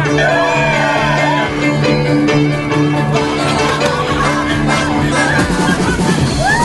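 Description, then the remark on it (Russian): A crowd cheers and shouts jubilantly, loud, with excited whoops and yells overlapping continuously for several seconds. “Ну, то есть и дальше, в принципе, ликование, там, э, крики вот этого человека, который пытался их закрыть.”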